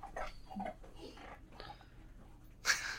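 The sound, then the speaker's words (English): A dog snorts and breathes noisily in short, uneven huffs, ending with a sharper, louder snort; no one speaks. “Although he, there might still be some dog noises.”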